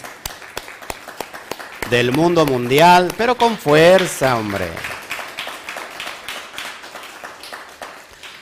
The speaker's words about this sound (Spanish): Pues sean bienvenidos nuevamente. Un fuerte aplauso, por favor, a todas las naciones